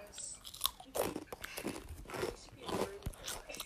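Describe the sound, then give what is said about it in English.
Crunching of Flamin' Hot Cheetos, a series of loud, crackly bites and chews arriving in irregular bursts, with faint mouth sounds between them. “I got some flaming hot Cheetos with me. And we're just gonna”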